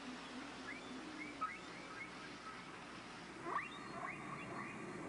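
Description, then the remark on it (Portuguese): Faint whale song drifts through a hissing underwater-like background: a few rising, wavering tonal calls spaced out over several seconds, with one brief louder swooping cry near the end. “O que uma baleia pode ter a dizer a uma outra separada por 15 mil quilômetros, eu não faço a menor ideia.”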